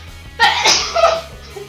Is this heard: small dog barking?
no